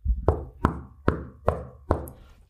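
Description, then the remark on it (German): Five knocks on a tabletop in a steady, evenly spaced rhythm, each a solid thud with a short resonant ring, and no talking. “Äh, ich klopfe mal auf den Tisch.”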